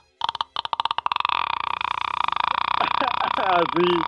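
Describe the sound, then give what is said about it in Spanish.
A voice mimics a creaking door opening: slow ticking clicks speed up into a steady, raspy drone that ends in a few sliding, squeaky pitch bends, fairly loud, with no other talk. “Pero, pero un ruidor como cuando alguien abre una puerta.”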